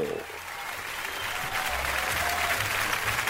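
A crowd claps steadily in a dense, continuous wash of applause, holding an even loudness throughout with a low murmur of voices underneath.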